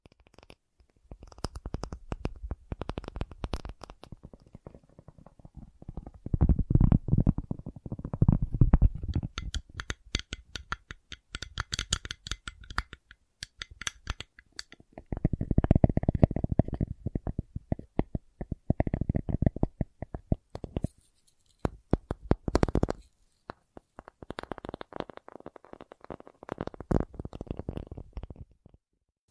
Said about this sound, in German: aber es gibt zum Beispiel ganz klassisch ist dieses Tapping, heißt es. Also das klingt dann ungefähr so.